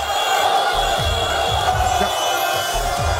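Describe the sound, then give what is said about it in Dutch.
A dense, roaring crowd of rioters fills the street after Morocco's World Cup win over Belgium, with constant shouting and chanting, punctuated by louder bursts and low thuds, loud without letup. “Komt natuurlijk door de rellen die gisteren in Rotterdam, Den Haag, Amsterdam... en ook eh, bijvoorbeeld in eh, Brussel uitbraken.”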